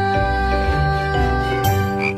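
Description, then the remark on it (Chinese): Frog croaking sounds repeat in a steady rhythm, a few low throaty pulses, over a bright, sustained musical backing with a light tinkling shimmer. “也像小青蛙呱呱跳心中。”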